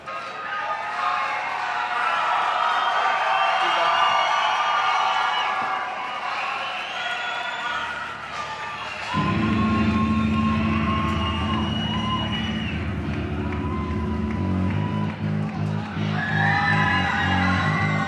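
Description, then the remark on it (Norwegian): A large concert audience cheers, whoops and yells loudly for the whole stretch, warmly receiving the band on stage, and partway through, heavy, sustained low musical drone or bass tones swell up beneath the cheering. “får varm mottagelse fra et publikum som er tydelig fornøyd med innsatsen fra de fem svette, ekstremt energiske og nesten litt fantenivoldske 19- og 20-åringene på scenen.”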